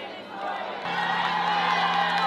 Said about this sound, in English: The security, the police officers are there applauding.